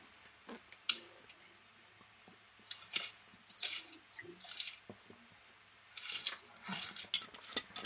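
Close, soft rustling of pages being leafed through in short bursts, with scattered small clicks and handling noises between them and no talking.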